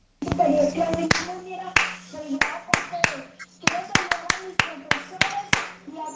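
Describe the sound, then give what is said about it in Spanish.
A rhythmic pattern of crisp hand claps, about a dozen sharp slaps in a syncopated beat, fairly loud, with voices murmuring underneath. “Y también sí, los estudiantes pueden crear sus propios ritmos en la casa también, con las palmas.”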